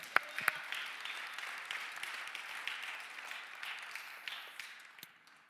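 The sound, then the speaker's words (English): A crowd at a sermon claps hands to the Lord in a dense, continuous wash of applause lasting several seconds, with a few sharper individual claps standing out near the start. “Come on, clap your hands to the Lord.”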